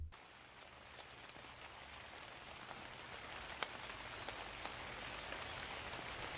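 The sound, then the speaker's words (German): Steady rain patters across a surface, a dense continuous hiss with scattered sharper droplet ticks, even in loudness throughout, with no voices; a rain sound effect used in a jingle. “Das heißt der Antwortenregen.”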